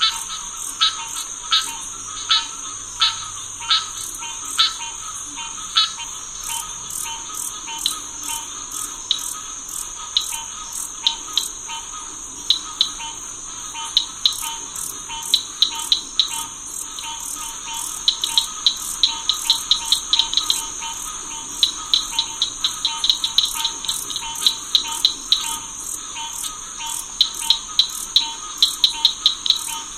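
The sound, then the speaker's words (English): A dense spring swamp chorus in Corkscrew Swamp: a steady high-pitched insect drone underlies rapid, repeating rattling frog-like calls that pulse throughout, layered, with no voices present. “Noise from truck traffic kept interfering with his recording, but for this CD, …, … pulled it out.”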